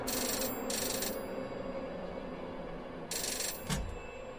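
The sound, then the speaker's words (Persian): A room telephone rings, with bright electronic ring bursts in two separated pairs over a steady low background hum, clear with no one speaking. “تلفن اتاق زنگ خورد”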